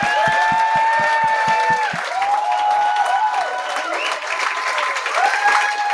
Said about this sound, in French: Je suis très content d'avoir ces deux gars-là sur le show. Mesdames et messieurs, une bonne main d'applaudissement.